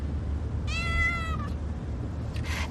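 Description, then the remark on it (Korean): A cat, Somang, lets out one drawn-out, slightly complaining meow, followed near the end by a shorter, fainter mew, over a steady low rumble of the moving car it is riding in, complaining as a traffic jam makes the drive longer than usual. “차가 막혀 평소보다 시간이 더 걸리는 날에는 야옹거리며 불만을 표현하기는 하지만 대체로 자기 자리에서 긴 잠을 잔다.”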